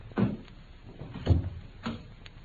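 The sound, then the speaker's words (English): Three heavy, thudding footsteps fall at an uneven, unhurried pace, each a dull low knock, with the steps seeming to draw a little closer against a quiet background. “I think I hear the fairy footsteps of your estimable partner.”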